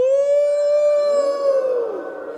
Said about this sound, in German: Und die Wölfe. Hört ihr auch die Wölfe? Au!